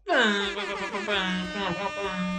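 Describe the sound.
A person imitates a horn blast with their voice: one loud, buzzy, sustained note held at a steady low pitch for over two seconds, with slight wavering partway through.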